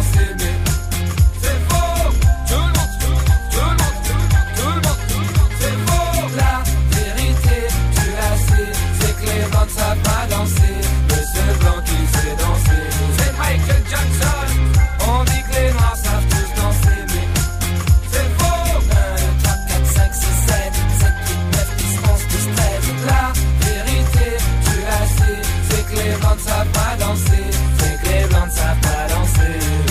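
A rap track plays loud and steady from start to finish, driven by a heavy bass beat and crisp, regular percussion hits, with no one talking over it.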